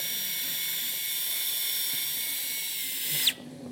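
A high-pitched powered surgical drill whines steadily for about three seconds, fairly loud, boring a hole for an anchor in the humerus, then winds down and stops abruptly, leaving quiet room noise.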